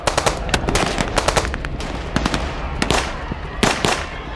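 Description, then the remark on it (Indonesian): Loud gunfire crackles in rapid bursts, sharp shots overlapping and answering each other in quick succession over a constant rumbling background, with no voices. “suara senjata meletus dengan keras. Dengan cepat, suara senjata susulan terdengar bersahut-sahutan.”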